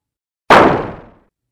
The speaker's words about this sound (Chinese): 贝拉生气的把大青蛙抓起来，往墙壁用力一丢。